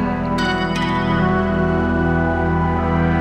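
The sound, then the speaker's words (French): A loud, sustained PPG-style wavetable synthesizer tone, a bit dirty, with a gritty, crunchy digital edge and dense buzzing harmonics, holding steady throughout, with a couple of brief bright clicks near the start. “C'est-à-dire vraiment la partie numérique, wavetable, le son PPG, vraiment, avec cette espèce de, couleur un peu crunchy, là.”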